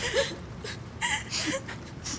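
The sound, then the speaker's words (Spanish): Two children crying and whimpering, with short breathy sobs and high wavering whines coming in uneven bursts, fairly quiet overall. “¿Por qué están llorando?”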